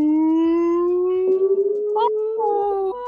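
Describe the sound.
A voice imitates a siren with one long, loud, continuous wail that climbs slowly in pitch over about three seconds, wavering slightly and breaking briefly partway through, with no other talking.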